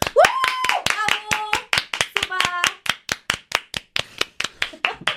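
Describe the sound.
Steady, rhythmic hand clapping, a couple dozen sharp claps at an even brisk pace, with brief voiced calls rising over the beat early on and midway through.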